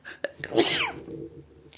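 A single short, breathy sneeze-like burst, quickly trailing off into quiet room tone; it sounds a little held back rather than a full explosive sneeze.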